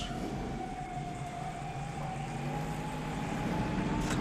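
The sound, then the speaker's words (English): A police siren wails steadily in Los Angeles, its tone drifting slowly, over a constant low rumble of city traffic. No one speaks. “you always hear the police siren around this movie.”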